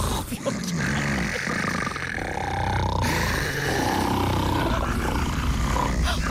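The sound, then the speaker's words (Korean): A man, the brother-in-law, snores loudly and continuously while asleep in a room, a harsh, rumbling, growl-like rasp that fills the whole clip with little pause, low and guttural with rough throaty texture. “언니 이거 지금 이 소리 형부 코 고는 소리 맞아?”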